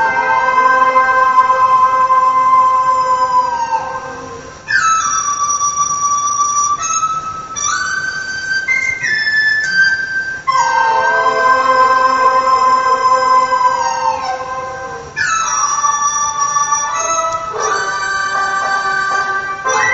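An old-style Chinese dizi plays loud, bright, buzzy sustained notes with sliding pitch bends in several long phrases, with no voices, heard through a thin, muffled vintage recording made on a steel-wire recorder.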